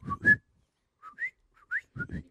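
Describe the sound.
A person imitates a coquí frog's call: four quick two-note chirps, each a low note jumping to a higher whistled one, with short pauses between them and no other talking.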